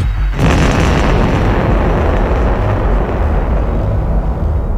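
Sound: explosion sound effect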